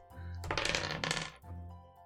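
A pair of dice clatter and tumble across a hard tabletop for about a second, a quick bright rattle of small clicks, ending abruptly with no voices; the two dice total five.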